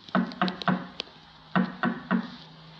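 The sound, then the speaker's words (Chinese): Knocking on the door of a small shop: two groups of three firm, hollow wooden raps, evenly spaced, with a brief pause between the sets. No talking, just the knocks against a quiet background. “他敲了敲一间小店的门。”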